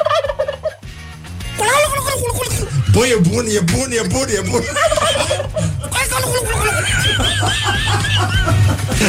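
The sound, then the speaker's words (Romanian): A man imitates a turkey's gobble with his voice on the Morning Glory show on Rock FM, a loud, rapid, warbling run of rising and falling yelps lasting several seconds, while other people laugh and comment in the background. “cum face tata ca curcanul?”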